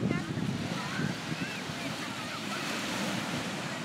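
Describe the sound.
Waves break and wash steadily onto a beach in Italy on a hot day, a continuous roar of surf with some wind noise, and faint voices drift in the background.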